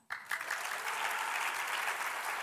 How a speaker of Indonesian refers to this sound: Anda tepuk tangannya.